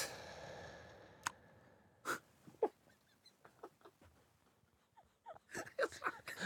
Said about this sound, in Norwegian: Hvorfor, er driver du og smatter inni mikrofonen? Jeg smatt når du puster, så når du sier det, det, det er blitt en helt egen greie.